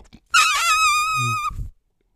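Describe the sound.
An elephant raises its trunk and trumpets as loudly as it can: a single loud call, brassy and shrill, holds for about a second and then fades into a brief low grunt, with no other sounds around it.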